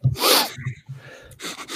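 A sharp sneeze-like burst of breath, followed by a couple of short nasal snorts and sniffs from someone with the sniffles, with no talking.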